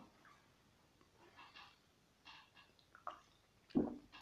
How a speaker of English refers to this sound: ah, just sip my coffee in,